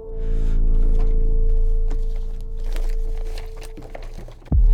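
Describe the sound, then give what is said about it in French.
Rustling and crinkling of paper, irregular handling sounds with a few soft thumps, as someone shuffles through sheets searching for a misplaced paper. A steady low hum sits underneath, and no one speaks. “j'ai mis ce papier, bordel Je suis sûr que je l'ai mis quelque part.”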